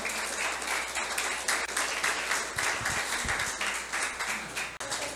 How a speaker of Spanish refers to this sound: Dale un aplauso al Señor con todo tu corazón.